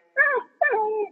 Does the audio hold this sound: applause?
no